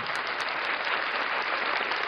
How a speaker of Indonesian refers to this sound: Oke, tepuk tangan dulu dong untuk Kartini masa kini.